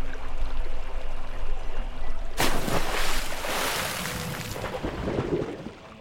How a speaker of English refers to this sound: The prince and his men rolled the holy man over the railing, watching it splash into the black water.